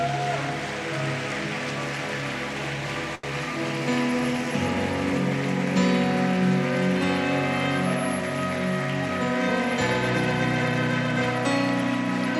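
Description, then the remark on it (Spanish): A church audience applauds the Lord steadily for about twelve seconds, a dense crackling wash of clapping that stays loud throughout, with sustained low musical tones running underneath. “Denle un fuerte aplauso al Señor por ello.”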